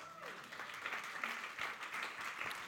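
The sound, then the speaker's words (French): An audience breaks into sustained applause for God, many hands clapping in a dense, steady wash, with a few murmured voices mixed in. “Moi, si j'étais vous, j'applaudirais Dieu de ce qui a mis ça en nous.”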